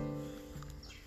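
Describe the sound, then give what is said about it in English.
A faint bird chirp sweeps through near the end of a short stretch of outdoor ambience out back of a house by a garden, set against a steady low hum; no one is talking. “Of course, you can hear the birds”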